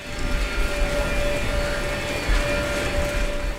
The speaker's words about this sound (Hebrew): הסאונד הכי בולט בכניסה למחלקה הוא מה שנשמע כמו מזגן חזק במיוחד. זו מכונת הוואקום, שיוצרת לחץ אוויר שלילי בתוך המחלקה.